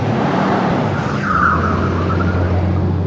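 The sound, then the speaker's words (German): A black Mercedes SEL limousine with tinted windows roars steadily with a low rumble while a brief high squeal of tires rises and fades mid-clip as it races away after hitting a child. “Die Limousine, ein schwarzer Mercedes SEL mit getönten Scheiben, die das Kind angefahren hatte, raste mit quietschenden Reifen davon.”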